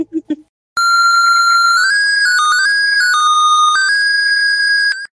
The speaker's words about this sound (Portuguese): Trilha sonora, eu achei ela média para baixo, tá?